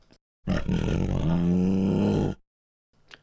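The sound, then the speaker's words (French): A menacing creature's growl swells into one loud, deep, rumbling roar that lasts about two seconds and sounds close, followed by silence and a faint brief noise. “Le grognement se répète, puis entend cette fois-ci.”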